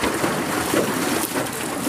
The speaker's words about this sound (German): dann kurbelt man Wasser da hinten nach oben und macht sich dabei nass.